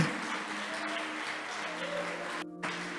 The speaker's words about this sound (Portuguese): Pode aplaudir que ele merece.